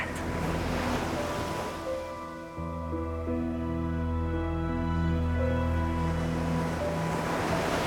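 Sea waves wash steadily onto the shore in a continuous roar, with a sustained low droning tone rising underneath partway through and no voices.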